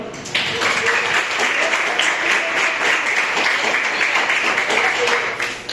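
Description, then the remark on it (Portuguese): Steady applause from an audience, offered to the Lord, a dense wash of many hands clapping at once, loud and sustained for several seconds without letup. “Eu agradeço a oportunidade, palmas que meu Senhor.”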